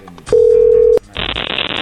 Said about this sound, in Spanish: Bueno, ahí se está marcando.